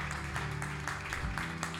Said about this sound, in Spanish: Dele fuerte un aplauso al Rey de Gloria.